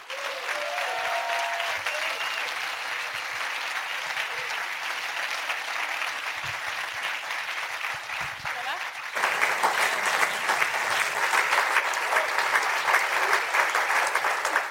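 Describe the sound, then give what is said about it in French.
An audience applauding warmly as guest Tony Parker, entrepreneur and investor, arrives on stage, a dense, steady clapping that swells louder partway through and keeps going for the whole stretch, with no voices heard. “Bonne écoute Mesdames et messieurs, je vous demande d'accueillir chaleureusement Tony Parker.”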